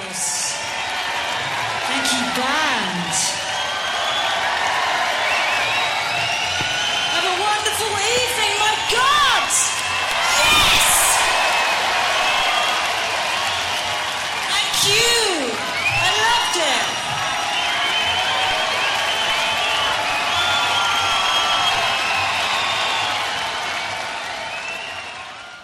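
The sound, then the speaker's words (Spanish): A concert crowd cheers and applauds steadily for about twenty-five seconds, with a dense wash of clapping, rising whoops and shouted voices that swell in bursts above the constant roar. “Se ganan el aplauso y el cariño del público, por supuesto que sí.”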